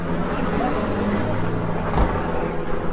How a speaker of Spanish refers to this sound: yo iba caminando por la calle. Y pasó un helicóptero.